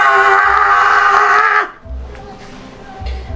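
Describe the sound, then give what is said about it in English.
A voice imitates a loud, strained, forceful shout lasting about a second and a half, then breaks off into quieter, low murmuring and background noise. “you hear a shout behind you.”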